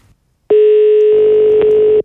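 A loud, steady telephone dial tone as a call is placed to Jēkabs Rēnis: one continuous mid-pitched hum lasting about a second and a half, then cutting off abruptly, with no voices.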